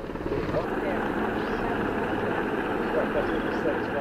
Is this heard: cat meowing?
no